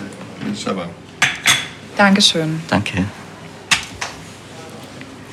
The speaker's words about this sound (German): So klingt eine Keksetagere.